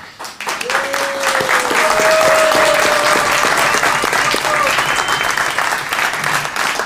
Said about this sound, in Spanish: Y este es el mejor momento. estamos aplaudiendo. Sí. A la vida, celebrando cuando, la vida. Cuando una palabra suena un poco más fuerte, la aplaudimos.